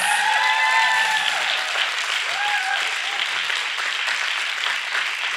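A crowd claps steadily in a dense, sustained wash of applause, with a few cheers or whoops rising above it near the start, fairly loud and continuous throughout.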